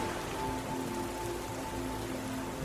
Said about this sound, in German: Regen hat eingesetzt. Der Wind wird kühler